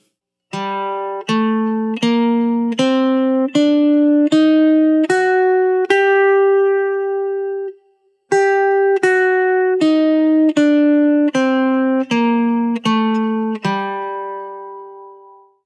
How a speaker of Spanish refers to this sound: Muy bien, continuamos entonces con la escala de sol menor armónica. En este caso vamos a aumentar un semitono al séptimo grado y la escala de sol menor armónica es así. Sol, la, si bemol, do, re, mi bemol, fa sostenido y sol. Ahora escuchamos.